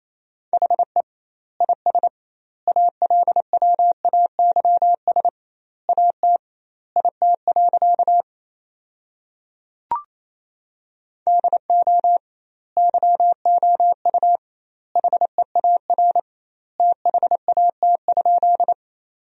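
Fast Morse code practice tones at 28 words per minute with double word spacing, sending sentences built from the 300 most common words: a single steady mid-pitched beep keyed rapidly into dots and dashes, forming word groups separated by wide pauses, with one brief click midway and no voices.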